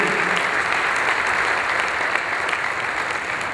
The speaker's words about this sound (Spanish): ¿Cuántos pueden bendecir a Dios por eso? Denle un aplauso fuerte al Cristo de la gloria que se lo merece.